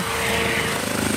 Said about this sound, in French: C'est un hélicoptère qui est assez impressionnant, vous avez expliqué que c'est un bimoteur